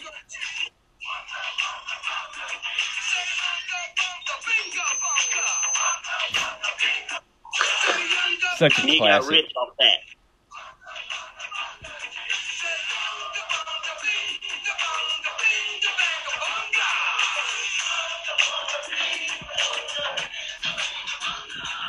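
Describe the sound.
A rap song plays through a small, tinny speaker with almost no bass, rhythmic vocals riding a steady beat that cuts out briefly twice, while people talk over it.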